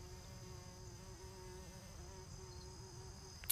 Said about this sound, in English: Can you hear the bumblebees? There's so many.